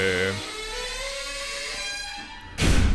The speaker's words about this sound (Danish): Døren knirker lidt. Døren knirker lidt, ja. Men det har så ikke noget med betongen at gøre, nej.